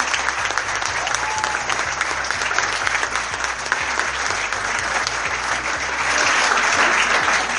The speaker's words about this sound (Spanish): Fuerte el aplauso para los 12 equipos de Desafío 24. La rompieron, hicieron un trabajo increíble.